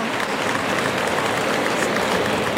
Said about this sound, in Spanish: Y el público que aplaude a Morante. Está recibiendo con una ovación por la temporada que está haciendo.